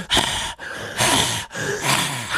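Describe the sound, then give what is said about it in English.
A voice imitates heavy breathing: three loud, breathy rasping bursts in steady succession, each a drawn-out huff separated by brief pauses, with no words spoken. “this as he's staring if. through the window of the store, breathing heavily.”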